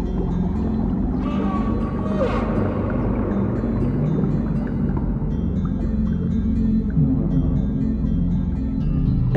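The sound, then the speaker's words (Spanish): Deep underwater ocean ambience: a dense, steady low rumble fills the space while faint whale-like calls and tonal cries drift in and out above it, heard alone without any voices. “Nota cómo los sonidos van cambiando a medida que entras en la profundidad del océano.”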